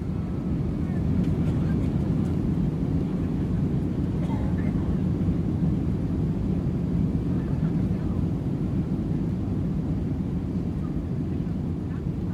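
Pan Am flight 914, a passenger airplane with 57 passengers, speeds down the runway for takeoff at an airport in New York on 2 July 1955, its engines roaring steadily, a loud, dense, low rumble that holds constant with a faint airy hiss above.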